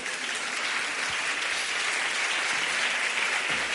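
An audience claps steadily, a dense wash of many hands applauding at a constant, fairly loud level for several seconds, with no voices standing out.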